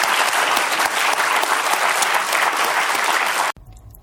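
An audience at a New York Historical Society evening program applauds steadily to thank a guest author, a dense wash of clapping that holds for several seconds before cutting off abruptly near the end.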